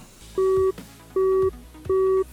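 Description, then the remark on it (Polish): A phone's call-ended busy tone: three steady electronic beeps, each lasting about a third of a second, evenly spaced with short gaps, loud with no voices. “Połączenie zakończone.”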